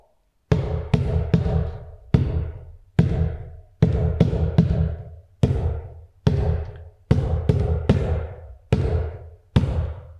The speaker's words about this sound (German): Und dann hört sich das nämlich schon wie Trommeln an. Ich mach's mal vor.